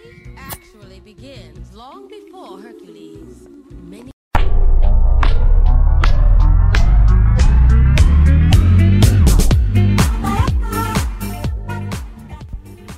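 A played song: a softer opening with melodic voice, then a brief dropout before a loud, dense full mix with deep bass, punchy beats and a rising swell continues to the end.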